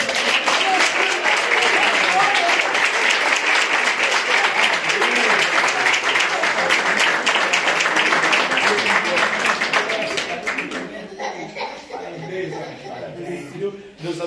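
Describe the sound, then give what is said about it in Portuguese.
A church audience claps hands for the Lord after a consecration, in sustained, dense applause that stays loud for about ten seconds, then thins out and fades into scattered claps and murmuring. “E as palmas ouvem ao Senhor.”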